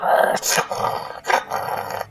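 sound effect, beast growling

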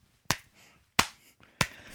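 human body sound, hand clapping

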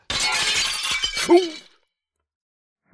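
impact, window glass shattering

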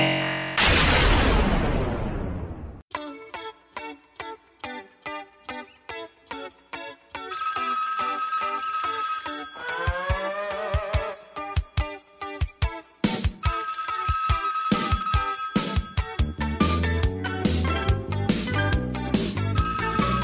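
signal or alarm, phone alert tone

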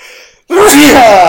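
human body sound, loud sneeze

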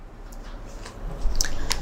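food or drink, chewing food

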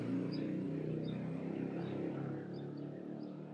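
vehicle, motorcycle passing by outside

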